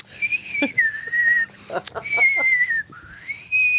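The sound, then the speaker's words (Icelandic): A person whistles a slow melody, with long sustained notes that glide gently between pitches, broken by a brief pause and a few soft clicks and breaths. “þá fyrir pappi var mikið að þurka af að blýstra”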